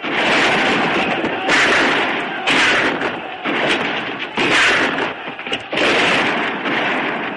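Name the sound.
gunfire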